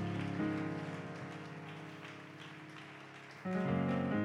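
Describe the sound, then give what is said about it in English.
A church audience claps steadily in a dense, crackling patter to welcome a preacher and praise the Lord, while sustained keyboard chords ring underneath; the clapping swells louder near the end as the music shifts. “So let's put our hands together unto the Lord as he comes in Jesus' name.”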